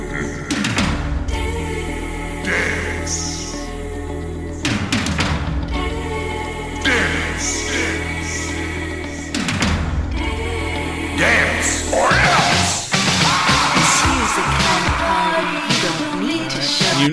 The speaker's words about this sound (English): this is the opening song, "…."